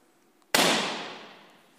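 A balloon bursts in one sudden, loud pop, its bright crack fading away over about a second after a brief quiet moment. No one speaks.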